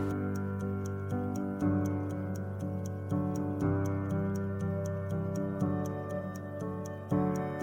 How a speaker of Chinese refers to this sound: 听，时钟在走动。